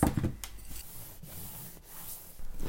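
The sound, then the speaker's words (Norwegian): A hand rubs steadily against a wall, making a continuous scratchy friction noise with a few soft bumps at the start and no voices. “Eh, jeg tenkte at kanskje ingen noen gang har tatt på veggen akkurat her.”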